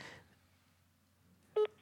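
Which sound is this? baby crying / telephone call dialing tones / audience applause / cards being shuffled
telephone call dialing tones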